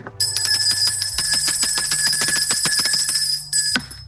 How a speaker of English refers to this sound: Let me ring the bell for you.